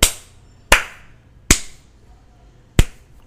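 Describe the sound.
Four sharp, isolated hand claps at uneven intervals, with awkward pauses between them, like someone clapping half-heartedly at the end of a film. No one speaks, and there is only quiet background between the claps.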